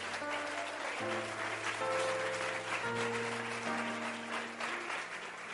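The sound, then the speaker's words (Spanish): An audience applauds God in a steady, sustained wash of clapping that fills the whole stretch, while held keyboard or organ chords shift underneath; no one speaks. “¿No mereces un aplauso a Dios por haber pensado tanto en usted?”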